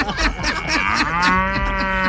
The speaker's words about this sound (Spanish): Ah, Vaca, ¿cómo estás? Ah.